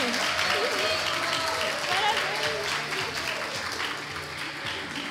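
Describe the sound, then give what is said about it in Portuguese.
Sustained applause from a large studio audience on the Wake program, dense and steady clapping throughout, with faint voices and cheers mixed in beneath it, tapering slightly toward the end. “Pode Você... aplaudir mais! Isso!”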